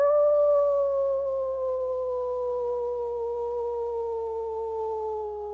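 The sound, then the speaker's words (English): A person lets out one long, sustained wolf-like howl that drifts slowly downward in pitch, steady and fairly loud, with no talking around it. “Howl now in this moment.”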